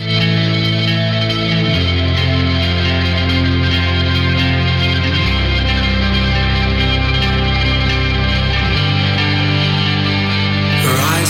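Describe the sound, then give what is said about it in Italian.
Post-rock music plays loud and continuous, a dense wall of effected, shimmering guitars over deep bass notes that shift slowly every few seconds, with a steady pulsing rhythm throughout. “l'ultima parte della nostra serata ce la passiamo insieme ascoltando un po' di post rock.”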